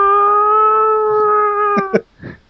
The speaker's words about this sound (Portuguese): eu assustei muito com aquele alarme de Hogsmeade no cinema. Ficou muito legal. Parecia um gato morrendo.